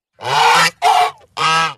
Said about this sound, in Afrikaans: Die gans gee 'n harde roep.